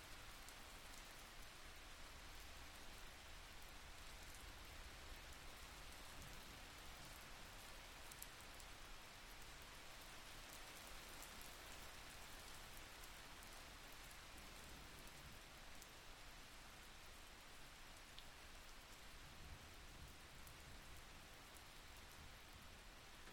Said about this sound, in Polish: Wdech wsłuchaj się w otulające dźwięki deszczu, który jest gdzieś daleko od ciebie.